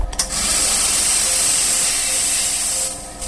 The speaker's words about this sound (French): de la vapeur qui est injectée à 120 degrés, qui permet de nettoyer comme il faut la cire et le plâtre.